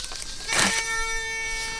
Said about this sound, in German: Also das Piepsgeräusch sagt, dass wir im Wasser sind mit der Sonde. Ich messe jetzt erstmal das Wasser nur bei 16,10 Meter.